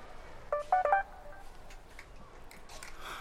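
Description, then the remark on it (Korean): A short electronic notification chime from a phone announcing an incoming text message, a quick cluster of bright tonal beeps near the start, followed by faint background noise. “잠시 뒤 문자가 또 왔다.”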